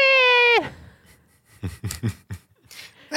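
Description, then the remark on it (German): A friend's cat lets out one loud, sustained, high-pitched cry that slides downward at the end, followed by a few soft, breathy puffs and rustles. “Die, die Katze von meiner Freundin.”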